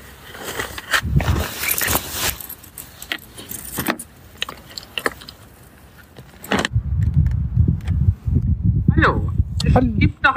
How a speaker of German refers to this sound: Ich parke jetzt vor der Tür. Das ist mir nicht immer vergönnt.